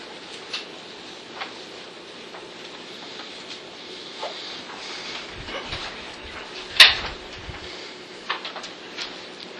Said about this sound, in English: You may close the door.